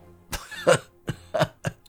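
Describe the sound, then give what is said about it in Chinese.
An old man coughs five harsh, rasping times in an uneven series while laughing shrilly, some coughs with a hoarse voiced edge, fairly loud, with brief silences between bursts and no talking, as if a voice is acting out a coughing fit. “老人发出刺耳而凄厉的哈哈大笑，一面咳嗽一面说话”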